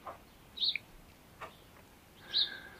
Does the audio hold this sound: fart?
no